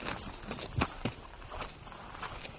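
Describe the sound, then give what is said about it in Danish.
Footsteps climbing an outdoor nature staircase up to a viewpoint: a handful of soft, uneven crunching steps at a loose walking pace, fairly quiet, with no talking. “Vi stiger op af en trappe. En naturtrappe.”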